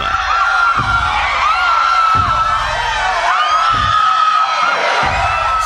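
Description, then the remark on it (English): A loud, dense crowd gawking in amazement clamors continuously, with overlapping shouts, whoops and excited cries, punctuated by a few heavy low thuds at regular intervals. “Suddenly, the gawking crowd's amazement is broken when a huge, chubby hand reaches down and scoops up dozens of them.”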